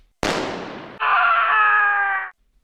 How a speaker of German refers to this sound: Ein Schuss, ein Schrei, das war Karl May.